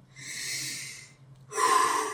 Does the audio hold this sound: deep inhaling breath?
yes